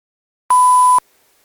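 A single electronic button beep, a steady mid-pitched tone lasting about half a second, loud, starting and stopping abruptly, with silence before and after.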